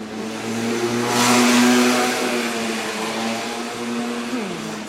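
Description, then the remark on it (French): A small scooter engine buzzes steadily with a high, whiny hum, swelling louder as it passes by, then easing off slightly while still droning on. No voices are heard. “tu vois, moi je trouve qu'on n'exploite pas assez les rues piétonnes pour rouler en scooter.”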